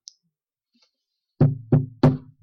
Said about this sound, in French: voici, je me tiens à la porte et je frappe. Si quelqu'un entend ma voix et ouvre la porte, j'entrerai chez lui